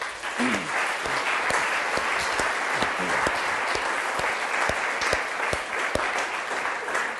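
A church audience applauds for the Lord after a prayer. Many hands clap together in a dense, sustained roar with sharp individual claps popping out, holding at a fairly loud level throughout without any talking.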